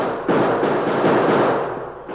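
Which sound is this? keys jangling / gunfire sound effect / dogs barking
gunfire sound effect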